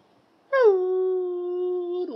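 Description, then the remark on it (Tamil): A voice imitates a jackal's howl: one long, loud call that slides down briefly and then holds a steady wavering note for over a second, with silence before it. “உழையிடும் நரி உழையிறத பார்த்து நாய் உழையிடுது அப்படியே அந்த காடே உழையிடுது”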